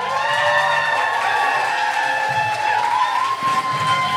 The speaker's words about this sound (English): Beautiful people, please clap your hands, whoop and cheer, and welcome your host to the stage.